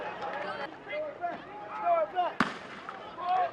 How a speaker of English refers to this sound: Oh! We're obviously in the midst of gunfire.